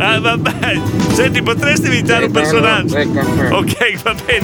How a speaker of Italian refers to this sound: In più c'è il rumore del furgone.